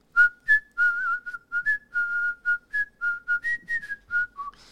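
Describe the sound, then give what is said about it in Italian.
A person whistles a bouncy theme tune, a quick run of short and held notes with a steady rhythm, heard alone with no talking. “non l'abbiamo riconosciuta solo perché tu l'hai fischiata male”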